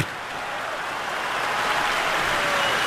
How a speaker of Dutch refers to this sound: Terecht applaus voor...